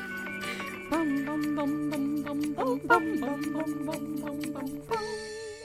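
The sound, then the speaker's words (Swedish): A short, bright intro jingle of GarageBand stock music, later used in Ajax TV commercials: sustained melodic lines over a steady rhythmic pulse, loud, with a brief pause and a new phrase near the end. No talking. “Ajax har snort vår ja. poddjingel! Man bara den är från liksom Alltså typ såhär garagebands egna”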